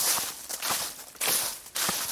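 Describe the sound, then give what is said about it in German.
Footsteps crunching and rustling along a hiking trail, a steady walking rhythm of soft scuffs and crackles with bright, hissy texture, no voices. “raschel nicht so laut hier.”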